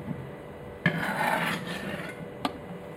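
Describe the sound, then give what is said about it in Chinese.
A utensil scrapes and clinks against the metal pot of an electric cooker as noodles and soup are ladled out of it, with a sharp knock near the start, a rasping stretch of scooping, and another brief clink near the end. “我现在在把那个面跟汤从电锅里面卡出来，卡出来听得懂吗？”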